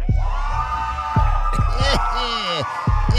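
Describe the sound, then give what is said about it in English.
A crowd cheers loudly and steadily, with sharp whoops and rising shouts cutting through the roar of many voices. “Oh man, that's why I love this crowd. Boy, this crowd be on it.”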